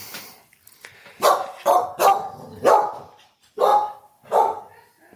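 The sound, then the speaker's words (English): A dog named Gus barks six times in loud bursts, two quick pairs and then spaced single barks, with no talking over them. “Dude, what are you barking at?”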